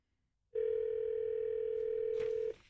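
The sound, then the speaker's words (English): A steady telephone dial tone hums continuously for about two seconds while calling one of two phone numbers given by a Newsmax show host, then cuts off abruptly with a brief click of handset noise. “And he gave us two phones to call to make sure we got one of them.”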